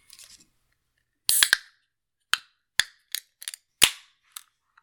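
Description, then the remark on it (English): A sharp crack of a beer can being opened with a short fizzy burst, followed by several scattered metallic clicks and snaps over a few seconds. No voices. “Let's go ahead and crack this open.”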